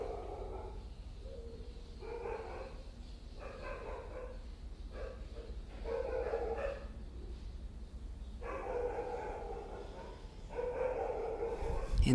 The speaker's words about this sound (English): barking of the dogs and the chirping of the birds. Expressions of different beings.